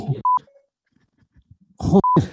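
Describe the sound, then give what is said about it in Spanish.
Short electronic phone tones beep twice as Siri places a requested phone call, each pair a steady pitched blip, separated by quiet murmuring and brief bursts of talk around them. “Le digo, oye Siri, llama a Javier Santos.”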